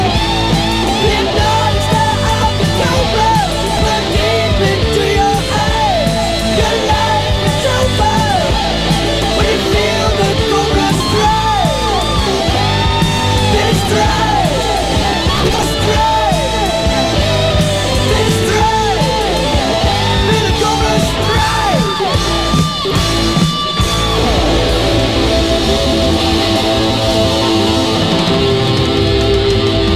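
A 1985 New Wave of British Heavy Metal song by a British band plays loud and dense throughout, with driving distorted guitars, pounding drums and soaring, bending lead lines or high vocals over the full thirty seconds.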